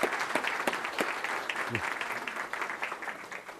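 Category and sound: crowd, round of applause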